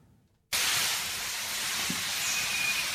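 Wood pigeons bathing under a shower: after a brief quiet moment, a loud, steady hiss of spraying water starts abruptly and runs on unbroken, with only faint soft splashes beneath it.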